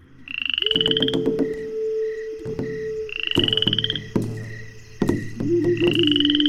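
A dense chorus of frogs croaking steadily, with overlapping calls, sharp repeated clicks, and a recurring high trilling note, all fairly loud with no voices.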